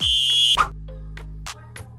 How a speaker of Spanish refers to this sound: el árbitro, el árbitro está, está, señalando que terminaron los, primeros 45 minutos. Vámonos al medio. Un poquito de la largue. Pitido, final.